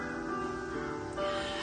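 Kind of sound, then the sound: bird, crow cawing outside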